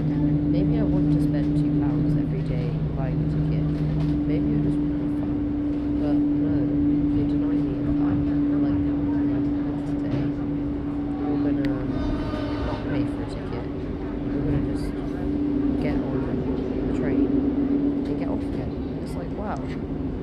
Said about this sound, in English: But yeah, right now I'm on a train. Yeah, yeah. You heard right, a train.